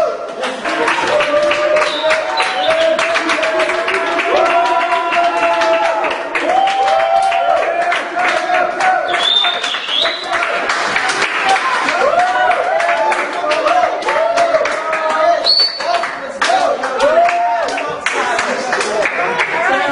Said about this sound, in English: Cheer on. People cheer on. Cheer on.